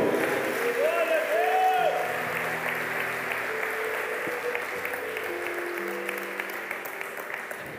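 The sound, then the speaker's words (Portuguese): An audience applauds the Almighty in the name of Jesus in a steady, dense wash of clapping that fills the whole clip, with sustained organ or keyboard tones beneath it and a brief voice rising over the start. “Se você crê, aplaudo Todo-Poderoso em nome de Jesus.”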